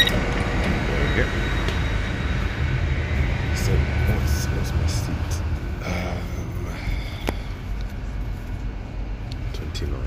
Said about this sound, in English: But yeah, the train has arrived ten minutes early. Maybe this is the uh, the last stop. No, it isn't. Just arrived early.